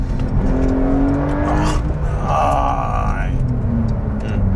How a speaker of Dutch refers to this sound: Omdat, weet je, een 911 Turbo S blijft gaan, blijft accelereren. Dus het is niet alleen dat eerste korte stukje waarbij het elektrokoppel er zo lekker in komt. Maar ook gewoon ja, het stuk daarna waarin het gewoon echt heel hard doorgaat.